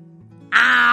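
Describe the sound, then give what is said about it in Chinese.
A low, steady rumble gives way halfway through to a sudden, loud, rasping roar of a very big tiger in a told story, arriving at an old woman's house; the roar holds strong and harsh until the end, with no talking. “不好，就是那个好大好大的老虎嘛！它大摇大摆的来到了老奶奶家。”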